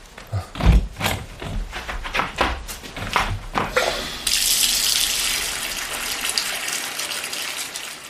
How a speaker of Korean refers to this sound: 도경은 욕실로 들어가 세면대에 물을 받고 샴푸를 가져와 물에 풀었다